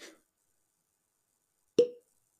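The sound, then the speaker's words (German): A single hollow pop, like a cork pulled from a bottle, sounds fairly loud after a near-silent pause, with a faint brief noise at the very start. “Achso, jetzt habe ich in, dein, in deinen Korken gequatscht. Warte, jetzt, ich, ich, ich, ich ploppe nochmal.”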